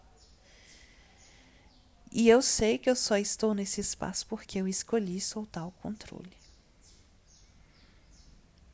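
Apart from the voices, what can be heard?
small bird singing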